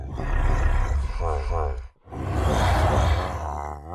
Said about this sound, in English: In fact, a lot of the Ravager sound effects seem to have an undertone of honking to it. Again, listen to those grunts and roars.